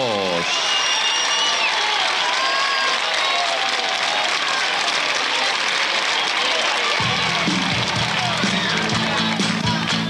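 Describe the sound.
Loud, continuous applause from the young studio audience of the TV show Feliz Domingo para la Juventud as host Silvio Soldán presents a rock band, with excited voices and cheers mixed into the clapping and a low musical hum entering near the end.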